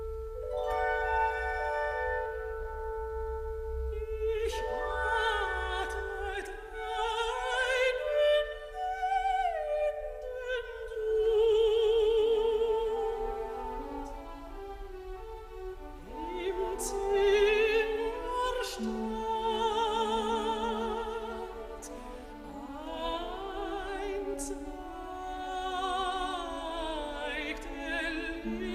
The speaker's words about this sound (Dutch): Ja, toen wij vroegen welke compositie we moesten laten horen van Mahler, nu, nu gelijk dit stuk. Waarom, waarom is dat? Ja, Maler is een verhalenverteller. En hier vertelt hij ook een verhaaltje.